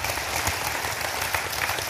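An audience applauds steadily, a dense wash of many hands clapping at an even, sustained level with no voices standing out.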